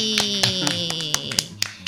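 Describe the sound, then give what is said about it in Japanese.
A quick run of about eight sharp hand claps at an uneven pace, set against a steady high-pitched tone and a lower humming drone, with no one speaking. “さっきちょっと私とマスターではない別の拍手も聞こえましたが皆さんの耳には届いてますでしょうかね”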